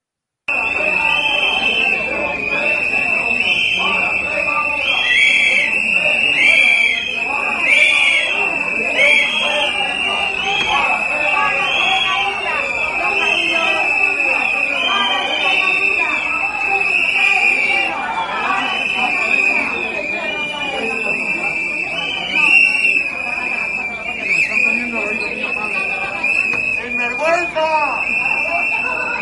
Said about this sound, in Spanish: Suéltanos, Alberto, cuando puedas, esa secuencia de 50 segundos, un minuto, que se le harán a Pedro Sánchez una eternidad con una pitada histórica.